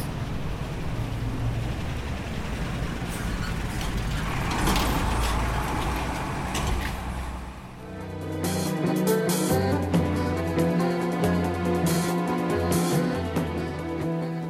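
A steady low rumble of traffic on a quiet city street with few cars and no buses drones continuously, then gives way to a denser, humming mix of engine tones and mechanical clatter, loud.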